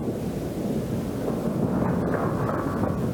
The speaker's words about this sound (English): Now, this trip was very, very scary because something unexpected happened. You know what is that? Storm.